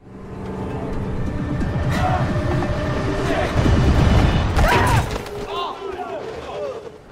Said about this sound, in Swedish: Sen kommer vi gärna till Edge of Tomorrow med Tom Cruise när han blir överkörd av den här bussen.